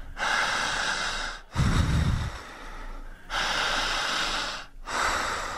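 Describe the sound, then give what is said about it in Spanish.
Slow, deep breaths drawn in and let out during a guided relaxation exercise, a few long airy inhales and exhales in a steady rhythm, one with a low rumbling gust, and no talking. “Siga respirando.”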